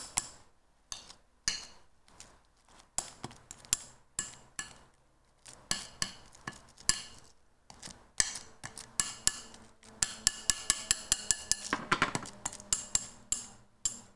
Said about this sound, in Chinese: 听了会有一点不舒服，不舒服的人可以往后跳，因为我这是在清我的玻璃碗。我们清好的就可以丢掉了。